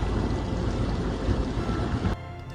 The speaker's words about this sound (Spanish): la acumulación de agua debido a las lluvias, lo que provoca que este baje por su cauce natural